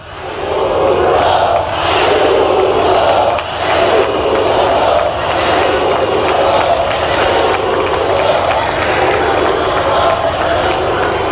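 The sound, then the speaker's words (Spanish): A large crowd on Calle Génova in Madrid chants "Ayuso, Ayuso, Ayuso" over and over, interrupting a speech: a loud, dense roar of many voices pulsing in a steady chant rhythm for the whole stretch, with no single voice standing out. “Quizá lo que más daño le hizo fue que su discurso fuera interrumpido en la calle Génova de Madrid por gritos de Ayuso, Ayuso, Ayuso.”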